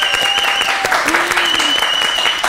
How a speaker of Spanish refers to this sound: ¡Un aplauso!